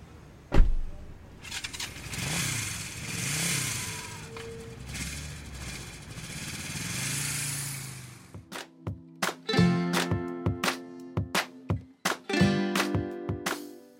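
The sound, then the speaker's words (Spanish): A car engine starts with a sharp burst and then revs up and down as the vehicle pulls away, followed by a choppy, pulsing engine rumble. “Sí, mi coche está por aquí. Ah, yo traigo la moto.”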